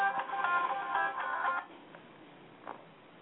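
A second mobile phone, forgotten and left switched on, rings with a bright, melodic electronic tune for about a second and a half, then stops abruptly, leaving near silence broken by one faint, brief chirp.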